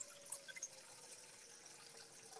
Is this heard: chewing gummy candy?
no